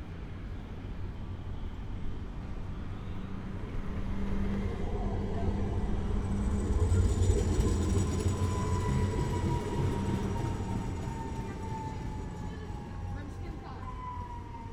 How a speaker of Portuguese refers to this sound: O elétrico.